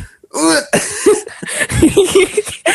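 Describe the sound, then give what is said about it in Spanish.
A voice makes a quick series of short, gulping hiccup-like sounds, fairly loud, with small breathy catches between them as someone imitates hiccuping. “a veces como siento que me dan como hipos cuando como muy rápido”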